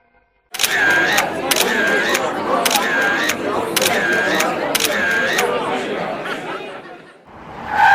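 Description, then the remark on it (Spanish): Paparazzi camera shutters snap in a rapid run of five sharp clicks, each with a brief electronic whine like a flash recharging, over a dense backdrop of murmuring crowd chatter; the paparazzi besieging Lady D in Paris on 31 August 1997. “Al escapar del asedio de los paparazzi cruzando el túnel del alma, impacta contra una columna”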